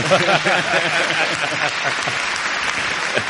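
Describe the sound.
An audience applauds steadily for a few seconds, a dense, even patter of many hands clapping, with voices mixed in underneath.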